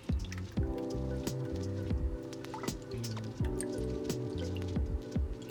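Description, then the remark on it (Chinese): Two cups of water are poured into a frying pan to steam celery on a plate, a steady trickling splash with scattered drips running for several seconds, heard over soft background music with no talking. “然后把它倒入锅中”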